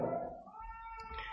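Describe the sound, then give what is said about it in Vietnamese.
A young child cries during a church sermon in a short, wavering wail that dips and then rises again, fairly loud, with no talking. “dạ yeah, cháu cù khóc không sao cho nên à, lâu lâu đó là tiếng đệm anh chị em sanh con cái nhiều mang vô thờ khóc cũng không sao”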